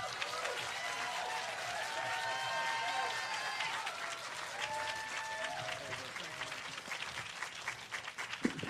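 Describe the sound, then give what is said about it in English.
Sustained applause from a large audience, dense clapping with scattered cheers and whistles rising above it, steady and loud for several seconds. “That wasn't loud enough.”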